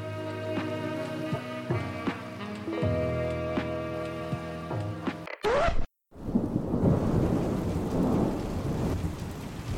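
Gentle tonal music plays for about five seconds, breaks off with a brief swoosh and a moment of silence, then steady rain and low rumbling thunder fill the rest, fairly loud.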